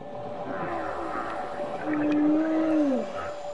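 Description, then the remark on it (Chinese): A blue whale's song picked up by a hydrophone: a single low, drawn-out tonal moan that rises slightly and then sweeps downward, heard over a steady wash of underwater hiss, with no talking. “这就是你为什么能在中国的南海边通过水听器，能够听到千里之外有蓝鲸在日本的海岸边唱歌的原因。”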